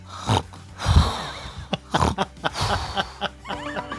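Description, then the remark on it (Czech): Loud snoring: rough, snorting inhales and wheezy exhales repeating in uneven bursts, with no talking, a few strained snorts standing out among softer breaths. It is a snoring sound effect introducing snoring as the topic of the radio programme Vesele a zdravě. “Chrápání dnešní téma pořadu Vesele a zdravě.”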